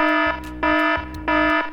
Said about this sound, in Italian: E qui arriva il momento dell'allarme regia.